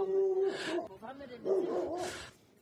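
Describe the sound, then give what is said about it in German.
A dog barks twice, announcing the arrival of visitors, each bark a loud, rough burst with a whining, tonal edge, separated by a short pause. “Ja, der Hund hat doch schon geklingelt und Bescheid gesagt.”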